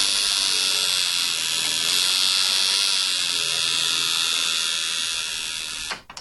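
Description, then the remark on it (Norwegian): A steady, high-pitched electric buzz from a tattoo machine drones continuously for about six seconds, then cuts off abruptly with a small click. “Eh, det var en tatoveringsmaskin.”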